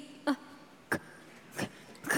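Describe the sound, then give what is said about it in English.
A few small, dry coughs and throat-clearing sounds come in short separate bursts, fairly quiet, with brief pauses between them and no talking. “I've just got a little cough.”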